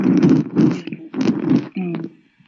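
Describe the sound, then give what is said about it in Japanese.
Loud rustling of clothing or fabric in several quick bursts, as if someone is shifting around, ending with a brief voiced sound before it fades. “あんまり動かないでください。ガサガサ音してますよ。”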